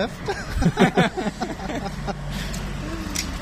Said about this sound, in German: Ähm, oh, jetzt wird's laut. Oh, zwei dicke Brummis.